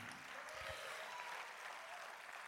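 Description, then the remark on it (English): Steady, dense applause from a large audience fills the whole stretch, a continuous wash of clapping with scattered cheers mixed in, loud and sustained without any talking. “So make a little noise if you're going to build your life on the right foundation this year.”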